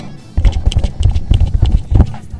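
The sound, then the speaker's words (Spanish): Rhythmic hollow knocks of two coconut halves struck on a board near the microphone, a live radio sound effect mimicking a horse's hooves clip-clopping at a steady trot, fairly loud, with no talking over them. “Tenían una tabla ahí cerca del micrófono y agarraban dos cocos partidos por la mitad.”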